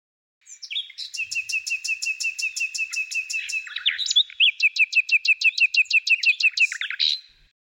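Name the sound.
nightingale singing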